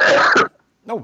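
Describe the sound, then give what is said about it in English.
One loud, explosive sneeze bursts out for about half a second, then a short silence before a voice says "bless you." “bless you.”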